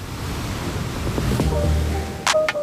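Steady ocean surf washes in a continuous broad roar, with waves rolling and breaking, and a couple of brief sharper splashes near the end.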